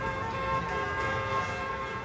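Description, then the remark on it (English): A parade of cars honks continuously down Division Street while people wave Puerto Rican flags, the horns steady and fairly loud, their overlapping tones blending into a sustained blare. “A parade of honking cars with people waving Puerto Rican flags ran down Division Street.”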